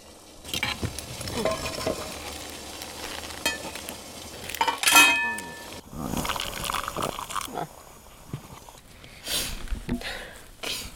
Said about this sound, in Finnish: kello on jotain kymmenen maissa ja täällä teltasi sisällä nyt tota aamukahvivesi purisi aika lailla.